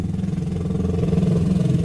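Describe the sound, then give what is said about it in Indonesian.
A motorcycle passes by, its engine rumbling with a steady, throbbing low drone that swells slightly louder toward the end, with no voices. “emang anjing yang bawa motor”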